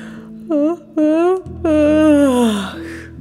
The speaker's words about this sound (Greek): Ήθελε μόνο να κοιμηθεί αφού δεν είχε ξεκουραστεί. Όλη τη μέρα χασμουριόταν.